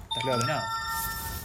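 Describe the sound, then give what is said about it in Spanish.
A man's telephone rings with a steady, bright electronic tone that sustains throughout, while a person speaks briefly over the start of the ring. “Uh, eso fue un teléfono. Eso fue un teléfono.”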